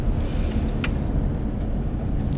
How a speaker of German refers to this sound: fährt die Auffahrt zur Klinik hinauf.